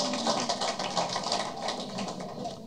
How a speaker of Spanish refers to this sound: Ponte de pie y dale fuerte aplauso a Jesús.